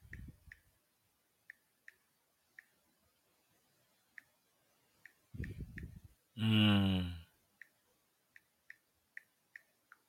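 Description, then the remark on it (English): Sparse, light keyboard keystrokes tick at an uneven pace, fairly quiet, interrupted midway by a brief loud vocal burst and some low rumbling. “Y'all hear me typing now?”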